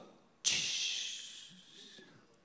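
A sudden burst of bright, fizzy hissing as Coca-Cola is poured into a glass of ice, crackling steadily and slowly fading away over about two seconds. No voices.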